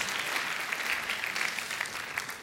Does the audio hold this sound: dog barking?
no